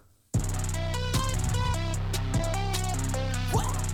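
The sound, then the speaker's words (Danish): After a split second of quiet, a loud rap beat bursts in with booming bass, bright distorted synth lines and punchy drum hits, playing continuously and dense from start to finish. “Det meste af …, det lyder sådan her.”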